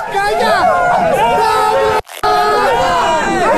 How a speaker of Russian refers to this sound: В раздевалке после матча лилось шампанское и вообще было очень шумно.